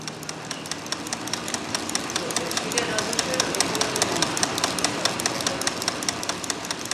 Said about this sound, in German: Das ist eine Zentrifuge, die wir da hören. Sie pumpt Blut in den Körper, Eigenblut, das vorher abgezapft und später dann wieder zugeführt wird. Das ist Blutdoping.